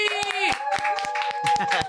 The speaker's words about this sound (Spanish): Oigan, un fuerte aplauso